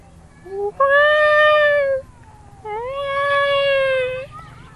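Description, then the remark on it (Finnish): A person imitates a cat's meow in a high falsetto, two long drawn-out mews with a steady harmonic tone, each lasting over a second, with a short pause between them. “Kissaan vaatii tosi kimeen äänen, että siinä pitää vetää ihan falsetos.”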